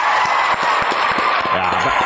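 Steady, dense clapping from a group fills the whole stretch, a loud rattling wash of hands, with a voice briefly rising over it toward the end.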